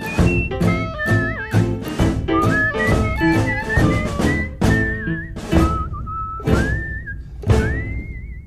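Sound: human whistling a tune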